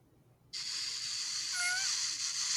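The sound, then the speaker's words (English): An abrupt, breathy hiss starts up and holds steady, with a brief squeaky tonal cry wavering through it midway, like a soft, airy creature call that resembles a quiet fart. No one speaks. “she plays for Madame Boss the sound of Mew, uh, which kind of sounds like a fart”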